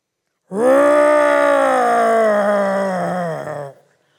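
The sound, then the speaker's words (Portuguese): A person practising a teenage lion's roar imitates it with a single loud, sustained voiced growl lasting about three seconds. The pitch sags gradually toward the end before it cuts off. “Mas você está treinando o rugido?”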